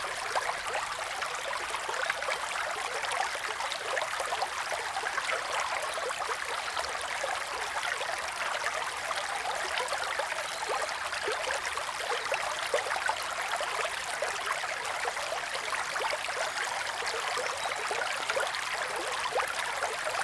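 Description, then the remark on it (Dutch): A small brook flows steadily for the whole stretch, a continuous bubbling and rushing of water with no pauses, voices or other sounds. “Het beekje volgt zijn weg en wordt een rivier.”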